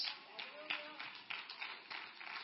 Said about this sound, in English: Now, that's about 15 of y'all clapping.